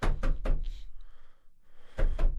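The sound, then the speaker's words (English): A hand smacks an alerter button in quick, solid thumps: three close together, a short lull with faint background hum, then another pair of hits. Fairly loud, with no talking. “he'll hit the alerter.”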